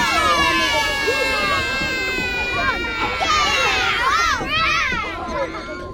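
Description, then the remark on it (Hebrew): A loud crowd of children shouting and chattering all at once, their high voices overlapping continuously in an excited rush as they run aboard a tour bus, during a broadcast of the Israeli radio station Kids 120 FM. “היי, ילדים, לעלות לאט, בלי לרוץ, לא חסר לי עוד ילד שיפול על הראש.”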